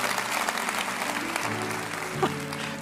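A church audience claps steadily in praise of God, in dense, continuous applause, with a murmur of voices and some tonal sound running underneath.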